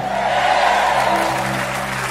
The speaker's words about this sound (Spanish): Todo el que crea que estamos sanos, deme un grito de amén con un fuerte aplauso.